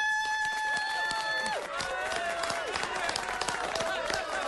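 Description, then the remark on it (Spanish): Steady applause and fanfare welcoming guests onto a show: dense clapping mixed with cheering, while bright sustained tones and sliding whistle-like notes ring out over it. “¿Lista la fanfarria? Listo los aplausos?”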